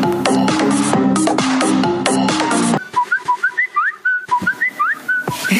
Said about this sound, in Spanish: Estamos escuchando un pajarito y estamos hablando del Twitter.